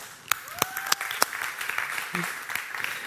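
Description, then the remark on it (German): An audience breaks into clapping: a few separate, sharp claps at first, quickly filling out into a steady, moderately loud round of applause with scattered voices mixed in. “Kann man klatschen?”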